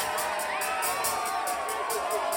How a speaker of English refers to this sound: The crowd cheered again, louder this time. She shouted over their glee.